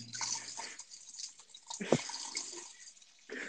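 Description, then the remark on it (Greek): A person urinates into a toilet: a steady trickle of liquid splashing into water, a thin hissing stream with a brief louder splash partway through, heard alone without talking. “Κάνουμε podcast ενώ κατουράς, καταλαβαίνεις.”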